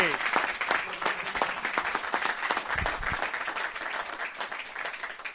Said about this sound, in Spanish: Oye, ya que me he venido arriba, un aplauso también para la gente. Un aplauso para ellos, sí.